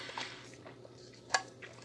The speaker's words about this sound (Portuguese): Já estou até com a minha garrafa de água que eu vou tomar até um gole.